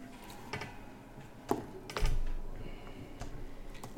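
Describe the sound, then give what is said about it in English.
Quiet office room tone with scattered keyboard clicks and taps, plus a few sharper knocks and a brief low thump around the middle; no one speaks. “And what you see inside is what you see the screen right now, which is sounds like an office.”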